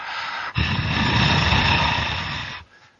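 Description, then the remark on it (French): A barn owl's eerie hissing breath: one long, harsh, rasping hiss lasting about two seconds, loud and breathy, preceded by a softer airy hiss and trailing off at the end. “aussi bien le, souffle effrayant, la respiration euh, bizarre et fantomatique des chouettes effraies, ça donne quelque chose comme”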